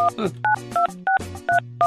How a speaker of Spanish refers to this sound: Ya le cortaron el teléfono.